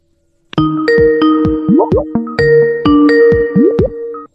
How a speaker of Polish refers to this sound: No, chyba mamy kogoś. E, ktoś tu dzwoni.